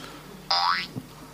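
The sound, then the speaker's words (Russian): A navigation app's audio cue indicating the direction to the target: one short electronic tone that sweeps upward with a springy, boing-like quality, clear. A soft low thump follows, with no talking. “А, да, вот я все-таки добился этого звука, да, то есть это звук на нашу цель.”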